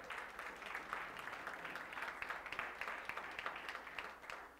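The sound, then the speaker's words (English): An audience at a church service applauds steadily, many hands clapping in a dense, continuous patter that holds fairly even in loudness for several seconds with no voices over it. “Give him a hand clap.”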